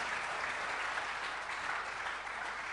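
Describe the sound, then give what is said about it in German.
Steady audience applause, a dense wash of many hands clapping at an even loudness for a few seconds, with no voices standing out above it. “Gebt einen Applaus.”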